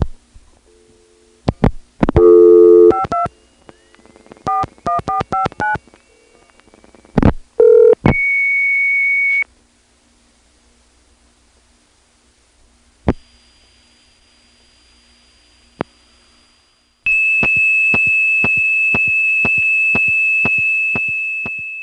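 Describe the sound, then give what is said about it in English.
A quick run of telephone dialing tones, then a brief steady tone, a hushed stretch with line clicks and a faint high whine, and finally a long, loud, unbroken single-pitch tone to the end. “So now we're going to call it up and send it a nice long 2600 after it answers.”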